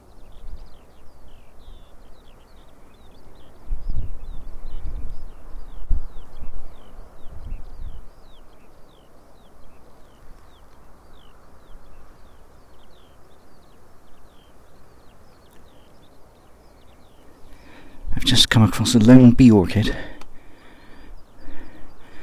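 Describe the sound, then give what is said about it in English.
Skylarks sing faintly and continuously on the steep climb up from Mate Bay, a thin, high twittering warble running beneath a man's speech, broken near the end by a brief loud rush of wind-like noise. “And there the skylarks are singing.”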